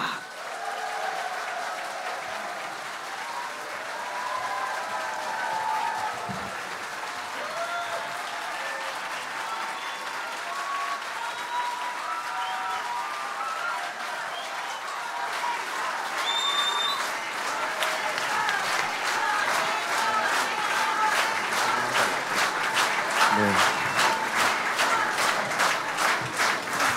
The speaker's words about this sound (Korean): 이제 제4회 호남 랩런트 오케스트라 정기 연주회는 이제 막을 내리려고 합니다. 오늘 우리에게 멋진 날을 선사한 우리 지휘자님과 또 오케스트라에게 우리 정말로 격렬한 아주 뜨거운 우리 기립박수 부탁드립니다.